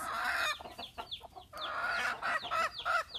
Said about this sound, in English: That one that's like squawk is like a normal age chicken. And then you hear the hens going cluck, cluck, cluck, cluck, cluck, and the little peeps of the little chicks. And the rooster, he's just excited for them to not be shut up anymore.